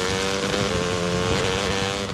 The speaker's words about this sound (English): You wouldn't ride your dirt bike blindfolded.